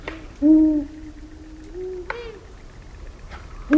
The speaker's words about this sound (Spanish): Y este sonido tiene el mismo significado, pues, por decir un ejemplo, que cuando un perro marca en un arbusto está marcando territorio, Pues los búhos chicos lo hacen así, a su manera.